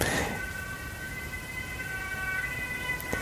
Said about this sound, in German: Jetzt hört man hier aus dem Studio raus schon den. Mhm. Das ist ja wirklich begleitend zu unserem Crime-Podcast. Stimmt. Äh, die Sirene der Polizei.